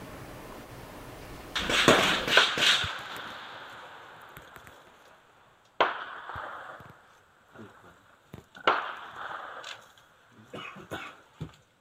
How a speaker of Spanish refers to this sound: Así, así se escucha el enfrentamiento a las balas de este lugar.